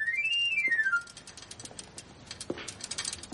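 A knife grinder's whistle, as the knife grinder passes by a door, plays a quick, shrill run of notes that climbs and then slides back down in about a second, followed by faint, scattered clicks and rustling.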